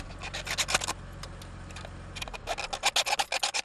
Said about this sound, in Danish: Det er faktisk en plastikpose, som man monterer med en ampul. Der skal vi lige have skåret begge ender af den ampul.